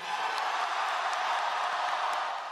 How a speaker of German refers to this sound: Und mit diesem Jubel aus New Hampshire begrüße ich